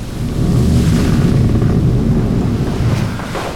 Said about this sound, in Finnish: Myrsky yltyi niin, että hirmumyrskytuulet puhalsivat laivan ympärillä – ja lisää aaltoja muodostui yllättäen.